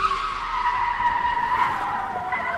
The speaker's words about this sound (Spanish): La quinta vez que cerró los ojos vino acompañada de un rechinido de llantas.